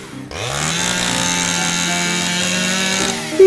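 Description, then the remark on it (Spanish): A large electric chainsaw, held by a very big man about to cut down a tree, roars to life and holds a steady, loud buzzing whine for about three seconds, its pitch rising briefly at the start before evening out, then cutting off abruptly. “Un señor muy grande, con una sierra eléctrica más grande todavía, estaba a punto de cortar su querido árbol.”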